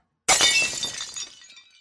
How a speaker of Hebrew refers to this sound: ובלי להתכוון, בעטתי בדבר שעמד הכי קרוב אליי. זו הייתה הרגל של שולחן האוכל. הצלחת של סבא התעופפה מהשולחן והתנפצה.